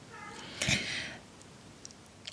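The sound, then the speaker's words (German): The speaker's domestic cat gives a single short meow in the background, moderately loud, with a bright harmonic cry that fades quickly into quiet. “Und das ist übrigens meine Katze Phoebe für den Fall, dass du sie hörst im Hintergrund.”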